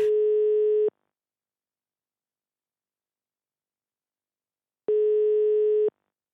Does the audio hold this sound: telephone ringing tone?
yes